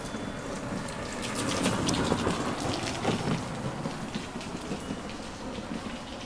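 Steady rain pours down outdoors in the West Lake scenic area of Hangzhou on an April day, a dense hiss of drops with scattered sharper patters, swelling slightly early on and then holding even. No one speaks.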